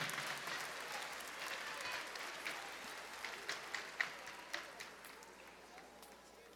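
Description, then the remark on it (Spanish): A crowd applauds the children after a prize-giving, with dense, steady clapping that gradually thins out, leaving a few louder individual claps near the end. “Bueno, un aplauso para los niños que además todos querían ganar.”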